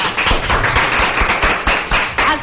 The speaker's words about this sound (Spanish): Hoy traemos gran variedad, gran variedad y vamos a iniciar la mañana con un fuerte aplauso, con mucha alegría